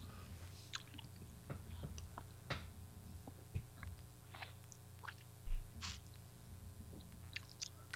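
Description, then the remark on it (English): Someone sips beer while tasting it: quiet wet slurps, lip smacks and small clicks scattered irregularly over a low steady hum, with no talking. “you probably already taken a sip, haven't you?”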